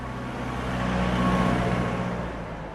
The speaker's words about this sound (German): Die Fleet Street ist heute eine vielbefahrene Verkehrsader im Herzen des Londoner Börsenquartiers. Taxis und rote Doppeldecker drängen sich auf der schmalen Fahrbahn.